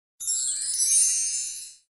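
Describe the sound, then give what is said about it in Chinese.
A house doorbell, pressed several times, rings in one continuous, bright, high-pitched burst lasting about a second and a half, holding steady before cutting off, with no voices. “牛皮摁了几遍门铃，”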